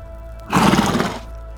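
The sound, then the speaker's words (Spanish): A horse neighs once, a loud, rough whinny lasting under a second and standing out clearly against a quiet, low background hum. No one speaks. “¿Qué hacemos con los caballos?”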